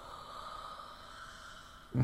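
A man snoring: a long, quiet, breathy rasp that ends abruptly in a sudden loud, low snort close to the listener.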